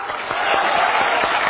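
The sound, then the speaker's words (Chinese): An audience claps steadily after an older woman answers a quiz question correctly, a dense, even crackle of many hands at a fairly loud, unchanging level, with no voices on top. “顾拜旦， 大妈回答正确，掌声。”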